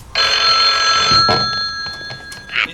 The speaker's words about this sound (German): Eine Stunde verging, bis endlich das Telefon in der Zentrale klingelte.